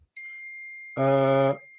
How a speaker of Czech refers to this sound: Chodí ti eh, SMSky, viď? Jo, jo, jo.